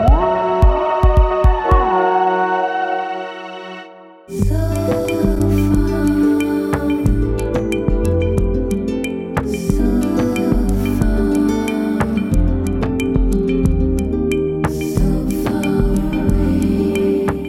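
A pop song plays loud and close, opening with a few seconds of sustained synth tones before a full band with steady drums and bass kicks in. No voices talk over it.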